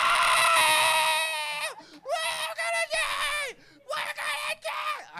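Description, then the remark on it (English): A voice imitates a woman screaming on a plane as it dropped over an ocean: one long, loud, high-pitched wail followed by several shorter shrieking bursts. “This lady grabbed my hand so hard and started screaming, Wah!”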